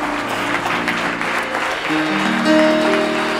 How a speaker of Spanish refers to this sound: Vamos a dar un aplauso fuerte a nuestro Dios.